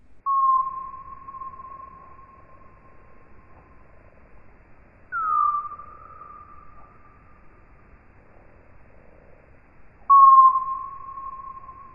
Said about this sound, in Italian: Quelli che avete sentito sono gli ultrasuoni emessi in modo continuo dalla nottola durante il volo. Gli ultrasuoni sono dei suoni che noi umani non possiamo sentire, a meno di modificarne la frequenza.